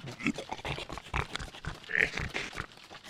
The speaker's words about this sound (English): It perambulated a wild beast. Dilly could not quite make out its form, but it was snarling and growling rapidly.